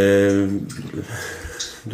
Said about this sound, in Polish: Pies pije wodę. To nie, to nie my, nie, nie, my, nie, nie jemy w tle, tylko, tylko pies.